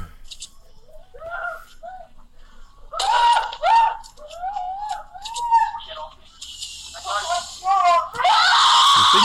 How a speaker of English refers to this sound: Oh, the kids. Maybe. Mm. Kids are screaming.